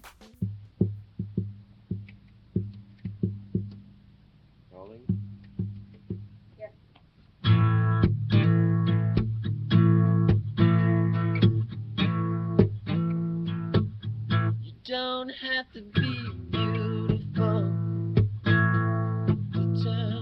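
A relaxed, mellow rough demo of a song. A sparse guitar-like part picks out notes at first, then fuller repeated chords join in a steady, easygoing rhythm with a flat, unpolished feel.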